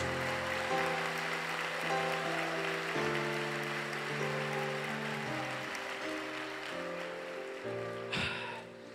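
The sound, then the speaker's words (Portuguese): A crowd claps steadily in a dense, rain-like wash of applause, with sustained keyboard chords shifting underneath, then the clapping thins toward the end. “Eu acho que vale a pena um aplauso.”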